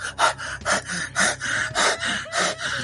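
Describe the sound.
Quick, heavy, nervous panting breaths of a woman, about six in under three seconds, in an even, hurried rhythm. Fairly loud, each breath harsh and airy, with no talking.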